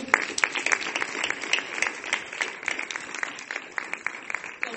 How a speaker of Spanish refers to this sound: Un gran aplauso para ellos.